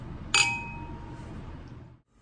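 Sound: glasses clinking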